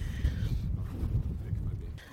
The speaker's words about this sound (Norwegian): Blåste det veldig her.